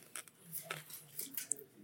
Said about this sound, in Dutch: Tweede hap nu van de club sandwich.